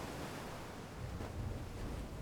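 calm sea waves

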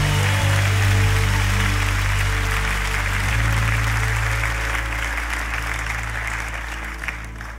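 audience clapping hands

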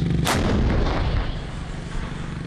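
artillery fire

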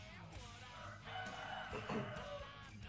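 rooster crowing

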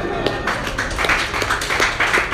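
hands clapping

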